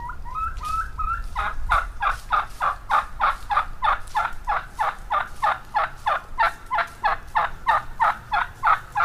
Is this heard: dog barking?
no